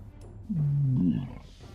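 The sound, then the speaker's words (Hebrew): A dragon clears its throat with a single deep, rumbling growl that rises and wavers for under a second, loud, with no talking around it. “המפקד היה בטוח שהדרקון התייאש, כשנשמע קול קחקוח.”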